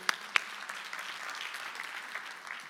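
A crowd applauds steadily, a dense wash of many hands clapping at moderate volume, with a couple of sharp, louder claps standing out near the start.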